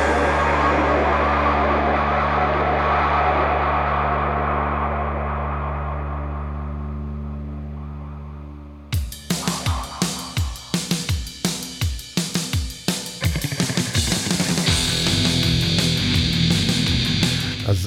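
A rock song: a loud sustained chord rings out and slowly fades, then heavy drums and guitars crash in with a steady, driving beat. No one speaks.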